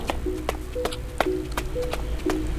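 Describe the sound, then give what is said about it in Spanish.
Quick, hurried footsteps run across the short space of a house's backyard in a steady run of about seven or eight distinct impacts on a hard surface, with a faint low hum in the background and no voices. “Las pisadas aceleran su paso. Recorren rápidamente el corto espacio del patio trasero de la casa”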